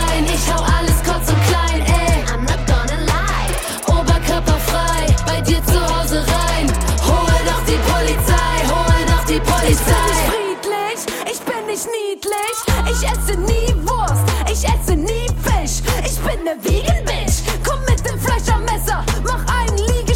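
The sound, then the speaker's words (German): A loud, full-produced new pop single plays with a steady driving beat and layered instruments, briefly thinning out around the midpoint before kicking back in; nobody talks over it. “gute Freundinnen und Freunde der Sendung … mit …, die neue Single”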